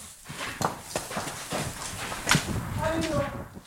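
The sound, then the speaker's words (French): Donkey hooves clip-clop unevenly as the donkey Berthe is pushed along into a stable, a handful of sharp knocks spaced irregularly as the animal shuffles, with people talking quietly in the background. “Alors on dit qu'un âne ça se pousse.”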